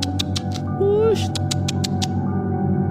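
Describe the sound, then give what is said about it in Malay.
A person makes a rapid series of sharp kissing or squeaking mouth sounds to call a cat, at night in a house, repeated about eight times over a steady low background hum. “Macam buat bunyi macam tu untuk kucing datang”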